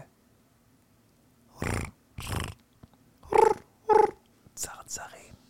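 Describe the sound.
A man's voice imitates someone on a stage roaring "Spartan!" into a microphone, in a series of rough, breathy bursts, two drawn-out growls followed by two sharper, tonal yells and a few shorter grunts, fairly loud.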